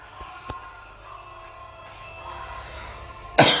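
A person coughs once, loud, near the end after a stretch of quiet low background noise with a faint tap early on.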